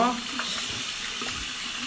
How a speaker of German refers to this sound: Wie kommt auf meinen Arm äh, Nuss-Nougat-Creme? Bro. So, Hände waschen. Äh, so.